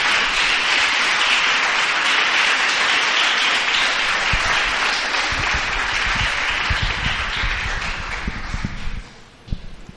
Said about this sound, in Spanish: Dele un aplauso al Señor esta tarde. Dele, dele, apláudale al Señor, apláudale.